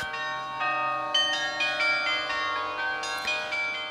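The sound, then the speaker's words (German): Carillon bells in a tower in the old town of Aarau ring out a tune, successive struck notes with shimmering overtones overlapping as each one decays, played at a steady, unhurried pace and heard clearly with no voices. “Dass die Glocken aber ganze Melodien spielen, das ist eher selten, ziemlich außergewöhnlich.”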